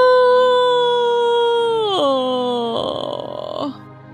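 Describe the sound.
A voice performs a long, drawn-out yawn: a sustained tone that slowly sinks in pitch, drops lower, then trails off into a breathy, airy exhale. It is fairly loud, with no other sounds.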